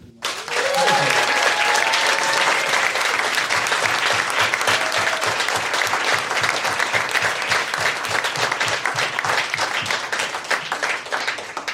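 Sustained applause from a live audience for guests who were on stage, many hands clapping densely and loudly for about twelve seconds, with a few brief cheers or whistles early on, then slowly easing off.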